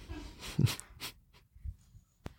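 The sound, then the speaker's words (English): A dog hacks and coughs in a few rough, breathy bursts, hacking up a hairball, with a short sharp click near the end, fairly quiet, with no talking. “he was like coughing for a second, just hacking up a little little hairball”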